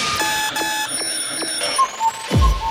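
A loud electronic alarm clock rings continuously, its shrill harmonic tone pulsing in rapid regular bursts, with a dull thump near the end.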